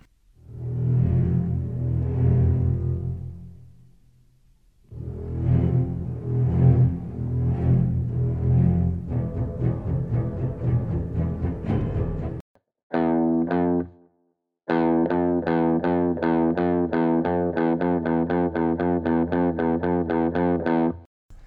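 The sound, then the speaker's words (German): A menacing great white shark theme built on a low minor second, an interval of one half step: slow, heavy alternating notes at first, then a brief pause and a fast, steady, driving pulse of repeated tones, synthetic-sounding and with no speech. “Die wohl berühmteste kleine Sekunde ist die eines Hais, genauer gesagt die des weißen Hais.”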